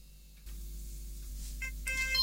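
A phone ringtone for an incoming call starts up near the end, short melodic electronic tones over a steady low background hum, fairly quiet and with no one talking.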